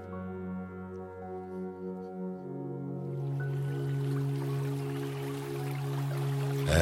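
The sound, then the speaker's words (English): Water starts running about halfway through, a steady hiss that builds gently, layered over a low, sustained humming drone that continues throughout. “as you wash your hands and hear the clear running water.”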